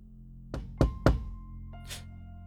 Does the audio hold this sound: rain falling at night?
no